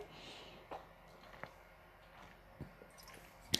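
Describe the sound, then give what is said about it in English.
Quiet sipping and swallowing of water: a few soft gulps and small wet clicks spaced about a second apart, with a slight clink near the end against a faint room hush. No talking. “I'm just going to have a drink of water here one second.”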